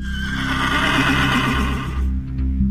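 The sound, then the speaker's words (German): A horse lets out a loud whinny lasting about two seconds, its pitch quavering and trembling before it breaks off, with a low rumbling background underneath. “Ein Pferd, das sie zum Kaiser macht.”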